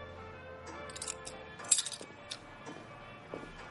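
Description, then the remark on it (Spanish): Soft metallic clinks of keys jangling as a man hands keys to a woman's outstretched hand, a few light jingles scattered over a few seconds with one slightly louder rattle, quiet, no voices. “Ella le mira de arriba a abajo, le tiende una mano y él le entrega unas llaves.”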